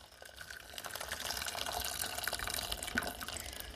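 About 400 milliliters of hot water pours steadily into a container of 20 grams of grated curd soap, to be stirred so the soap dissolves, a continuous splashing, gurgling stream with no one talking.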